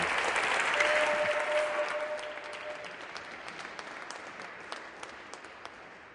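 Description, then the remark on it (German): An audience gives a huge round of applause for the preacher's son, who is preaching together with his father for the first time: dense, steady clapping that gradually thins out, leaving a few scattered claps at the end; a faint sustained tone hums briefly early on. “das ist das erste Mal, dass ich mit meinem Sohn zusammen predige und gebt ihm doch einen riesigen Applaus.”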